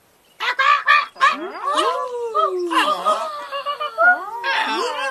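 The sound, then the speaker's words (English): Loud birds at a creek cackle, flutter their wings and chatter in a dense, overlapping burst, with harsh squawks and rising, sliding calls tumbling over one another for about five seconds, with no talking. “A fire with enthusiasm, the birds flapped their wings, cackling, fluttering, and chattering with joy.”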